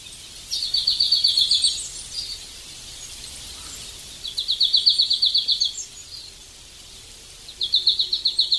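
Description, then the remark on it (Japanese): A marsh tit sings in a forest on Teuri Island, with sea wind blowing through the forest, giving three bursts of rapid, evenly repeated high notes separated by brief pauses, clear over a soft, quiet background. “手売り島の森の中を足太柄のさえずりが降るように聞こえます海からの風が森を吹き抜け鳥たちの鳴き声を運びます”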